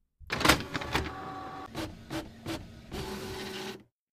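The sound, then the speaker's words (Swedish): A small printer feeds and prints a sheet of fun facts about snakes: a whirring motor with a steady tone, broken by several short mechanical bursts and clicks, then a longer grinding pass before it stops. “Nu har vi fått ett papper med rolig fakta om ormar här.”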